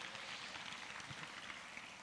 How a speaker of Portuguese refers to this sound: Tome seu assento e dê um aplauso a Jesus bem forte.